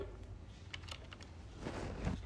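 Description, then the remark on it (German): Plastic clicks and soft taps as the S keycap is taken out and a new S keycap is pressed down onto a keyboard switch while a keyboard is assembled, a few short snaps spread over a couple of seconds against a low background hum. “Dann holen wir jetzt das S raus. So. Dann packen wir das neue S rein.”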